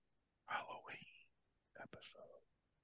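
Someone whispers close to the microphone in two short breathy bursts separated by a brief pause, the words hushed and unvoiced against a quiet background.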